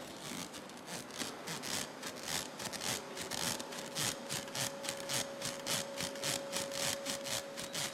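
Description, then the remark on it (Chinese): Foley of an emperor's sedan chair on its way to a military campaign creaking, made with technique in front of a microphone: a steady run of soft, rhythmic wooden rubs and strains repeating about twice a second, with a faint sustained squeak running underneath and no talking. “比方今天是皇帝的叫的。”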